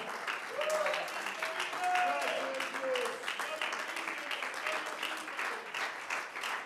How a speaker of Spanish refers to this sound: Sí, hermano, brinde la gloria y la honra. Y si ese aplauso es para Él, creo que hay que hacerlo con el alma.